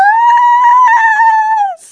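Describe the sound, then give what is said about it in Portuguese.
A woman lets out a loud, excited, high-pitched yell, held steadily for almost two seconds before it dips and cuts off. No other voices or sounds accompany it. “Ai, meu Deus, talvez eu tenha berrado um pouquinho demais.”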